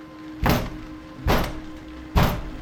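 Three heavy, booming thuds of someone pounding on a door from outside, evenly spaced about a second apart, each blow loud with a short rumbling decay over a low steady hum.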